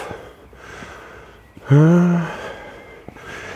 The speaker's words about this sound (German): Ich schnaufe übrigens so, weil der Rückweg ist bergauf. Und ich bin ja nicht der Sportlichste.